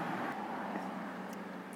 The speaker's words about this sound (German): Nein, und oh, ja, wir haben ein Flugzeug.